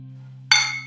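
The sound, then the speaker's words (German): Two beer glasses clink together once in a toast, a bright ringing chime that lingers briefly over a low steady hum, with no voices. “Boah, lange nicht mit Bier angestoßen. Das, was für ein satter Sound.”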